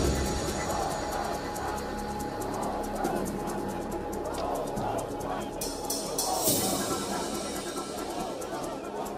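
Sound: protest crowd chanting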